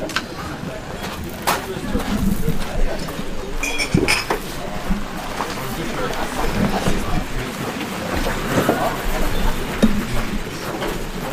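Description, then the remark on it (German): Footsteps crunch steadily over loose gravel stones as people walk on to another spot, a continuous scraping and clicking texture lasting throughout, with faint voices murmuring in the background. “Das ist jetzt hier vom Thron her mit den äh, Rascheln äh, der Steine hier eher so ein Wanderpodcast.”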